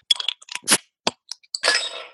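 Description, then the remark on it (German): A Bohemia Crown double dry-hopped pale ale is opened with a series of sharp clicks, clinks and cracks, followed by a brief fizzing, rushing pour into a glass. No one speaks. “So, habt ihr es schon im Glas? Ich habe es schon im Glas.”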